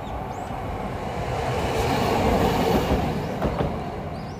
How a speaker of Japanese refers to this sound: はい今日も賑やかに電車が通っておりますが